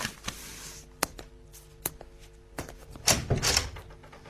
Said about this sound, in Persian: خیلی خوب میرم در باز میکنم